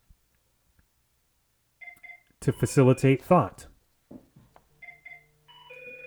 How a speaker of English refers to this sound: well look at that i forgot to put my phone on do not disturb and it's ringing so we're just going to go through it but i'm not going to answer it right now and we'll move forward